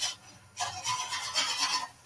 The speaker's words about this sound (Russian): Вы слышите? Кажется, кто-то пилит.